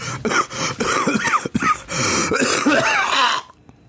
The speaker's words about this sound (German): Stell mir nichts Schönes vor, als einen Podcast uh. zu hören und dann so richtig schön einen ins Ohr gehustet zu bekommen.